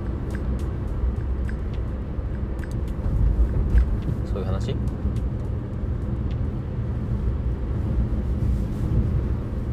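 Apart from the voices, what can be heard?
car interior noise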